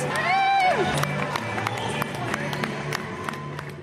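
A lively crowd shouts and cheers at a speech podium beside the Taoiseach, with brothers shouting wildly and throwing balloons; one voice rises in a loud whoop at the start, followed by scattered sharp claps and pops over a steady murmur of many voices.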